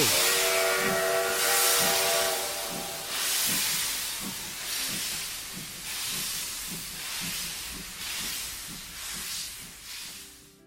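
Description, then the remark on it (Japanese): A steam train pulls away: a loud whistle sounds at the start, then broad hissing steam bursts chuff in a steady rhythm that gradually quickens, with no voices present. “それでは出発いたします。まずは5年前の過去へ。出発進行”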